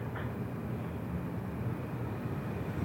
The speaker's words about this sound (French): Un avion passe. Je ne voudrais surtout pas crier.